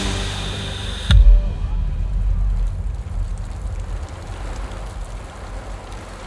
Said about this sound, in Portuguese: Estava chovendo no Rio de Janeiro naquela sexta-feira, 6 de dezembro. Nenhum temporal, mas o suficiente para baixar um pouco o calor daquele verão